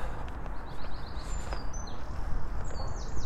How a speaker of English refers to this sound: Birds are tweeting.